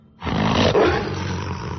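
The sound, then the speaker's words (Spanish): A loud, menacing wolf growl erupts suddenly and rumbles on, deep and rough, for nearly two seconds, unaccompanied by any voices. “Un gruñido más amenazante que ninguno que hayas oído hasta el momento te devuelve al presente y a la horrible situación en la que estás.”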